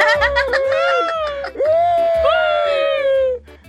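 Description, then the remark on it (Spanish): A voice imitates crying with a long, wavering wail that bends up and down in pitch, loud, with a faint rhythmic thumping beat underneath. “No me imites tú, …, eh, que yo no te imito cuando llora lloras con salvadoreño.”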